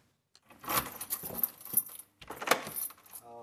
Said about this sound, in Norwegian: låser opp døra til leiligheten han leier i en tømmervilla i Øvrebyen i Kongsvinger.